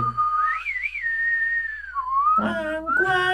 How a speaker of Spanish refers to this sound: escuchaban silbidos, güey. A lo lejos. A lo lejos, o sea, no, no, así un silbido Así, exacto. Uno sencillo, sencillo y corrido.